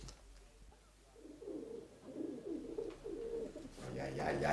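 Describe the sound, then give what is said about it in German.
Several pigeons in a dovecote coo softly in overlapping, throaty murmurs, a continuous chorus that swells louder toward the end, with faint rustling around them. “Später Taubenbraten, jetzt Taubenschlag, habe ich gesagt.”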